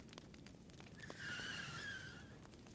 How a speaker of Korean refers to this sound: 바깥에서 자동차 브레이크 소리가 들렸다.